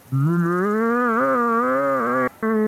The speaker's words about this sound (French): Les arbres, les troncs se brisent et de la forêt, la chose sort. Elle dépasse les arbres. Elle est énorme. Elle pousse un cri qui vous glace les sangs. Un énorme meuglement